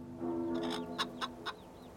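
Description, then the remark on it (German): A rooster clucks as it flutters out of a henhouse, a sustained throaty note followed by three short, sharp clucks in quick succession, with no one talking. “Dann flattert der Hahn aus dem Hühnerstall.”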